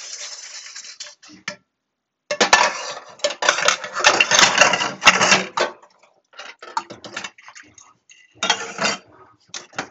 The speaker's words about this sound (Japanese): フライパンを磨いています。